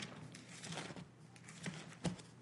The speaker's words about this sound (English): And I hope you're watching me because you can see I have a Bible in front of me. And I am turning the, turning the pages. Yes, I am relatively turning slow.